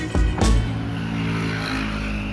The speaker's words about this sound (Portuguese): O barulho não incomoda muito no quarto de dormir, que é fechado, mas na sala pode ficar bem insuportável, principalmente quando passam motas, porque existe no mundo uma segunda pandemia de que não se fala, a de motas com canos de escape rotos.